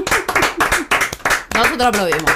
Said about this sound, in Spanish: quiero pedir un aplauso para la provincia de Tucumán. Ahora les voy a contar por qué. Primero el aplauso.